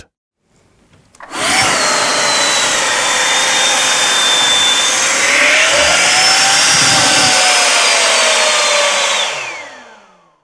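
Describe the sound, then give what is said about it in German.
An avalanche airbag with the Light-Trick system, powered by supercaps, inflates with a sudden, loud motorized roar, a whining fan tone that wavers in pitch for about eight seconds before cutting off abruptly. No one speaks. “Und so klingt es, wenn der Airbag ausgelöst wird.”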